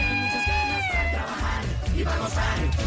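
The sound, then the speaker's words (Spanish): A female cat gives a long, drawn-out meow that slides downward in pitch, fairly loud, followed by softer mewing over a steady, rumbling background noise. “es la gatita.”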